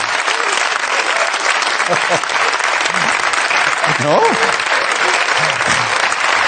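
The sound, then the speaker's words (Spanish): Sustained, loud applause from a large audience fills the whole stretch as a dense wash of clapping, with a few voices calling out faintly beneath it. “Mira que, mira que a veces no entiendo aplausos, pero este.”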